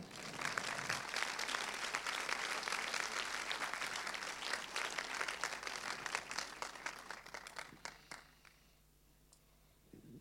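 Sustained audience applause at a film screening, a dense wash of many hands clapping at once that holds steady for several seconds before tapering off into a few scattered claps and quiet room noise.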